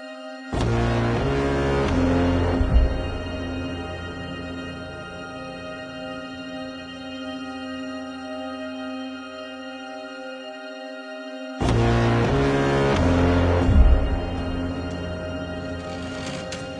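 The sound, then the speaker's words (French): Dark film score music from the film All Quiet on the Western Front: a massive booming chord blast that rings out into a long, sustained drone, then a second identical blast about eleven seconds later, loud and ominous with no voices. “ce film est une masterclass accompagnée d'une musique dont les notes me glacent le sang à chaque écoute.”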